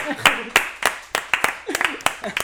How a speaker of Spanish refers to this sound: ¡Muy bien! Un aplauso.